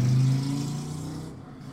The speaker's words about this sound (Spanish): A ver que pase la pinche moto.